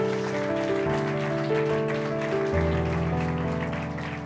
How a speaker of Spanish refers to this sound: Dan un aplauso fuerte a Dios y le vas a aplaudir.